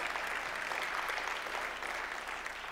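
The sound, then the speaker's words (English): An audience applauding steadily for new salvations, a dense wash of many hands clapping at an even level throughout, with no voices rising above it. “Yeah, I think you can applaud for that.”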